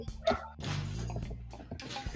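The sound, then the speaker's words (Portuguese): Dogs bark in a short burst, followed by a longer, louder stretch of rough, tonal barking and yelping that continues with a few more sharp barks near the end. “Deixa eu parar aqui que os cachorros estão me dando as.”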